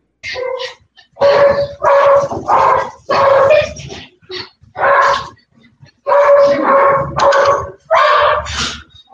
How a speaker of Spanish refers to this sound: y se escucha un ruidajero de perros.